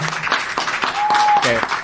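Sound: audience applause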